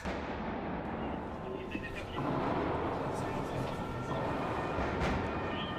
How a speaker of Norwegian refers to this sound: Da hørte vi da skudd og eksplosjoner og skrik og sirener og allerede det var ganske um, vanskelig.